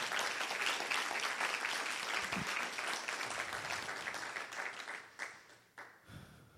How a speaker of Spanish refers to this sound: ¿Cuántos pueden darle gracias a Dios? Vamos, denle un aplauso fuerte a Jesús.